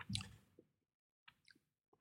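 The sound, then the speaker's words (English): Quiet chewing of a crunchy coconut cookie with a bit of chocolate on top: a burst of moist crunching, then a pause and a few softer irregular chews and smacks, with no talking. “why are you eating coconut when you're doing uh, talking?”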